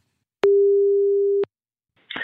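A single long telephone ringing tone as a BNR Nieuwsradio host phones a guest, a steady mid-pitched beep lasting about a second, starts with a click and ends with a click, followed by silence and then the line picking up with a noisy burst.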